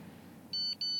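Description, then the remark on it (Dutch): Two short, bright electronic beeps in quick succession, a phone app message alert for a message from Jeroen, sounding over a low rumbling background inside an Uber car. “hey, een appje van Jeroen.”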